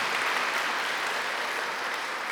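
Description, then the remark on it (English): A crowd applauds a student ministry leader at a recognition of the graduating class of 2021. The clapping is a dense, even wash of many hands at once that holds at a fairly loud level throughout, with no voices standing out. “Can we give him a round of applause for that, please?”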